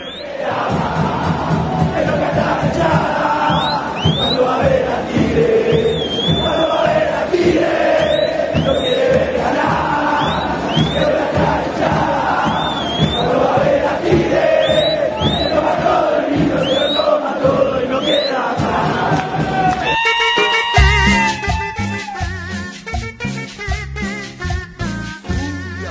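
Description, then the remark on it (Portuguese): A large crowd of Tigre football supporters chants loudly in unison, a dense roar of voices with shrill whistles cutting through, then near the end the chant gives way to a pounding, rhythmic beat. “Mas vamos dar voz aí à, à enteada é, do, do Tigre com o primeiro tema que fala que é uma autorreferência, né?”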